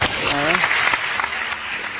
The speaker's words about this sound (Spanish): Hay ah. un aplauso, aplausos envasados. me, mató con esos aplausos.